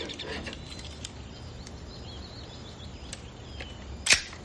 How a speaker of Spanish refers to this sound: Cuelga. Abre el cajón de la mesa y saca una pistola.